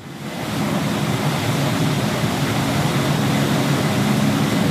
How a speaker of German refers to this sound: Wir haben jetzt eine Raumkühlung, die werden wir jetzt auch hören.